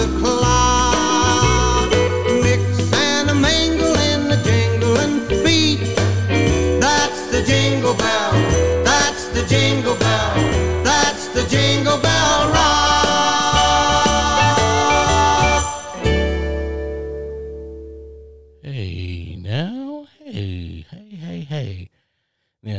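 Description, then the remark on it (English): An upbeat Christmas pop song with bright jingle bells shimmering over a steady beat plays loudly, then cuts off and a person starts talking. “That … get you going. Once you hear that ding, ding, ding, ding, ding, ding, you already know what it is.”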